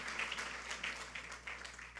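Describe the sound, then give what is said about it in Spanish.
A crowd applauds loudly for the Lord, many hands clapping in a dense, crackling wash that holds at an even level for the whole two seconds, with faint voices mixed in. “Sí, un aplauso fuerte al Señor, porque ha sido hermoso hoy y hay que proyectar.”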